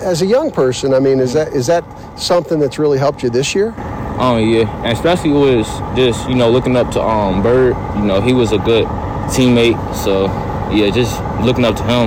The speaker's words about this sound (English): You can hear the bus in the background.